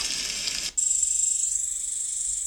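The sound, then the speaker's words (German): A dense, high-pitched trill of crickets buzzes steadily without pause, cutting out for a split second and then resuming as a thinner, sustained chirring. No one speaks. “Die denken, Grille.”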